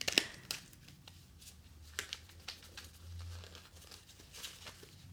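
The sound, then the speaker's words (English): Playing cards being shuffled, a quiet run of quick papery flicks and riffles with irregular bursts over a low background hum, no talking. “Okay, I'm gonna shuffle.”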